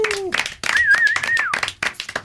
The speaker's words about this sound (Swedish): Applåd för honom också.